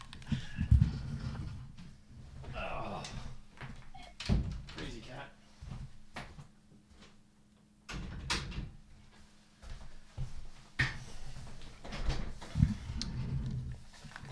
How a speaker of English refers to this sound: I think he's getting hungry or something, but I'm going to close the doors and lock him out for just a moment.